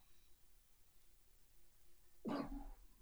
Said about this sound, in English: Bless you.